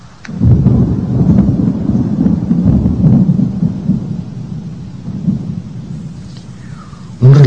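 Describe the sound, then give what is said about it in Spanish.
Deep, rolling thunder rumbles steadily for several seconds, low and heavy, then a sudden loud crack bursts in at the very end. No voices are present. “relámpago iluminó toda la zona.”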